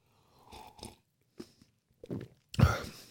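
Someone bites into a marzipan-scented sample and chews it: a few short, crunchy bursts at an irregular pace, fairly quiet at first, ending with one louder, fuller crunch. No one speaks.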